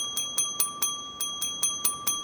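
A house doorbell, rung by Pinocchio, rings rapidly and insistently, eight quick metallic chimes in two bursts of four with a brief pause between, clear, with no one speaking.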